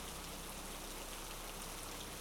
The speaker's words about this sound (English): The first minute and a half are just rain noises, some thunder booming in the distance, and pitch blackness.